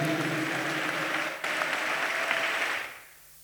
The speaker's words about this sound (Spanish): Denle un fuerte aplauso a nuestro Señor Jesucristo.